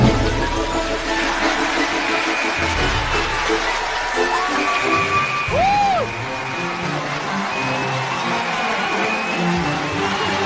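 A crowd applauds steadily for the whole stretch to welcome guest speaker Li Xigui, principal of Beijing No. 11 School, a dense, loud wash of clapping with scattered whoops and cheers rising briefly through it.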